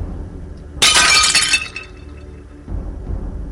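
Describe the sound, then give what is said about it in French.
A dinner plate shatters with a sudden loud, bright crash, its sharp ceramic fragments ringing and scattering for about a second before fading into a low murmur of background noise. “Mon assiette a, éclaté.”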